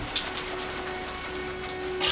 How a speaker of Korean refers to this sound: 비가 비가 비가 오는 날 새벽 3시. 밖에서 들려오는 빗소리. 창밖으로 비가 억수같이 쏟아지고 있는